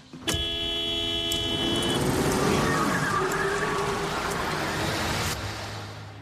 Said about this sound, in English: Rachel honks angrily and takes off